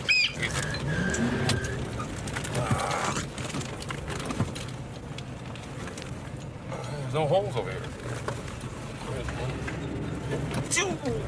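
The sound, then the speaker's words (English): A big American truck engine rumbles loudly and steadily for the whole stretch, a deep continuous drone beneath a man's brief speech, with faint bird chirps in the background. “People wonder why I don't buy American cars. God damn. listen to that piece of shit.”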